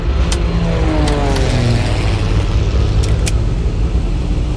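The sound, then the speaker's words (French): A small ski-equipped propeller plane (a twin Hunter) built to land on ice, flying over the Arctic two hours after taking off from Resolute Bay in northern Canada; its engine roars loudly and steadily throughout, a dense droning rumble with tones sliding downward partway through and a few sharp clicks on top. “Le boucan d'enfer que tu entends, c'est un twin Hunter un petit avion à spatule pour se poser sur la glace.”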